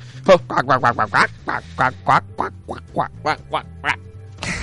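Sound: duck quacking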